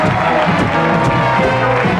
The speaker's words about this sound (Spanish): Queremos un aplauso bien grande para Mac Panton de Argentina. Mac Panton.